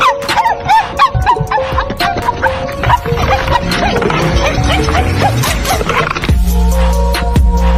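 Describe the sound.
A man imitates a dog on a livestream, letting out a rapid series of high, yappy barks and yips over background noise, followed by a steadier droning hum toward the end.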